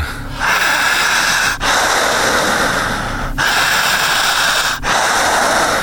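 Heavy, deep, forceful breathing, drawing in air without stopping, with long noisy inhales and exhales flowing almost without pause, broken by three brief gaps. No one speaks.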